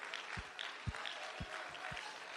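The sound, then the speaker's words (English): An audience claps their hands together, a dense, steady wash of many hands at moderate volume, with a regular low thumping beat about twice a second underneath. “Accompany your voice with that hand clap right now.”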